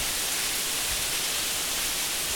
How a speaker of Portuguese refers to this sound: Essa é a famosa chuva pega peão, né? Que é aquela chuva que cai no. assim, entre 5 e meia e 6 e meia da tarde para pegar bem a pessoa que está saindo do trabalho.